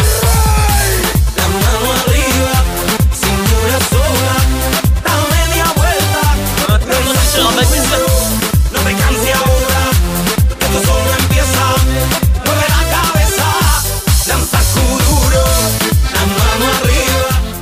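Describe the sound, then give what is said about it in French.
Loud, driving kuduro dance music from 2013 with a pounding, fast electronic beat, heavy bass and bright synth layers, playing continuously with no voices over it. “Exceptionnel, exceptionnel dans Kuduro.”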